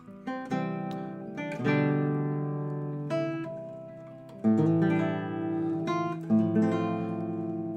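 A classical guitar plays the opening of a sonata in slow, ringing chords and plucked notes, each struck firmly and left to decay before the next, with no talking.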